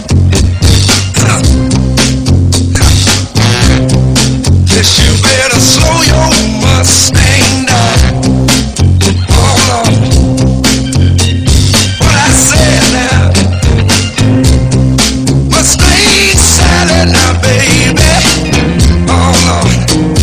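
A song plays loudly and continuously on The Car Doctor radio program on AM 950 WROL, with a full band sound: a steady, prominent bass line and a driving beat running throughout.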